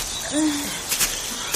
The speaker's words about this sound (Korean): 여름숲 여기저기서 새소리가 그들의 발걸음을 쫓아왔다.